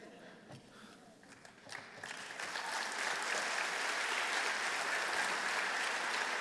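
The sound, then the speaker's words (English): An audience at an evening talk breaks into applause, starting with a few scattered claps that swell after a couple of seconds into steady, dense clapping which holds loud to the end. “Now, for some of my white brothers and sisters that didn't clap at that, understand I, well, I deliberately didn't say white people.”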